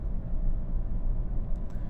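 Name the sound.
car driving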